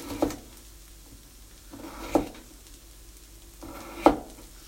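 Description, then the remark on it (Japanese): A knife cuts through a carrot on a cutting board in three sharp, crisp chops spaced about two seconds apart, with a low steady background hum and no talking. The carrot is halved, quartered lengthwise, then sliced in a ginkgo-leaf (ichou-giri) style while cooking. “人参を切っていきましょうまず半分に割ってですねさらに半分に割ってで4分の1に割ってですねでいちょう切り的な感じで切っていきます”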